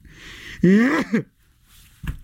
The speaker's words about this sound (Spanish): Y ya estornudó ya no pasa nada.